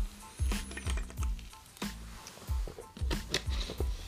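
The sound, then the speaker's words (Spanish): A plastic bottle, used in place of a drinking glass, crinkles and crackles right against the microphone, a loud, irregular run of sharp snaps and crunches spread across about four seconds, with no voices. “tengo una, botella de plástico en lugar de un vaso.”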